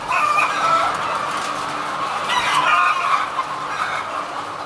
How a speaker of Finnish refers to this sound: Kanalan omistaja Sulho Lehto kertoo, että hallissa on yli 20 000 kanaa, ja samanlaisia halleja hänellä on viisi kappaletta.